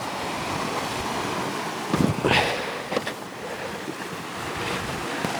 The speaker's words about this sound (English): So this, and we're coming towards a sort of a deep chasm where the where the sea washes into a jagged inlet. Milky blue water down there.